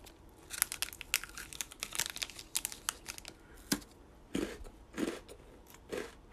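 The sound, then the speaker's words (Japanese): Crunching and chewing of wasanbon-sugar-flavoured Happy Turn rice crackers: a quick run of crisp, brittle crunches, then a few slower, muffled chewing bursts, with no talking. “じゃあいただいてみましょう。”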